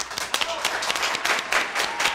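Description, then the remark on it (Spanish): A small group claps steadily throughout, a dense, even patter of applause that stays moderately loud, with a faint voice barely audible underneath. “Entonces eso sí, que te lo tienes que aplaudir.”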